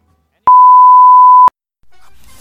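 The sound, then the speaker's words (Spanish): A single answering machine beep: one clean, steady mid-pitched tone lasting about a second, loud, then a faint low hiss of background noise. “Por favor, deja tu mensaje después del VIP.”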